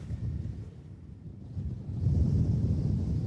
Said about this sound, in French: Le vent euh, continue de souffler. Cette euh, tempête euh, automnale, aurore, continue de frapper effectivement le littoral des Hauts-de-France.